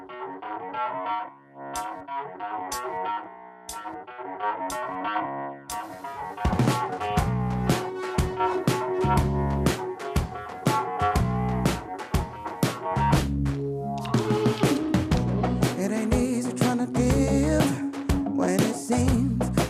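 A retro soul song from a singer's first solo record plays, opening with a sparse instrumental intro before drums and a full band kick in with a steady, punchy beat that stays loud and driving.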